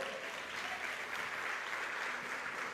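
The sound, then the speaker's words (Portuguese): An audience applauds the Lord in a steady, dense wash of clapping that holds at an even level throughout, with no distinct individual claps standing out and no speech over it. “Se aplaude, aplaudiu o Senhor.”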